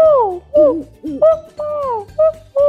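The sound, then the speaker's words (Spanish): A child's voice imitates an owl, giving a quick series of about six loud hoots, some long and sliding downward in pitch, others short and clipped. “Después también me gustan los búhos que hacen. Uh, uh,”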